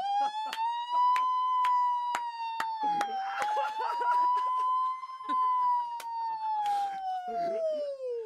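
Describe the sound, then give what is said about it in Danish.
A human voice imitates a police siren, holding a loud, nearly pure whistling tone that rises and falls slowly for about eight seconds, with sharp clicks and some background laughter breaking through. “Jeg vil virkelig gerne høre den der politibil.”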